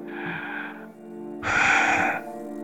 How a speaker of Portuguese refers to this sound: Eu, eu dei uma pausa assim, eu tô respirando aqui.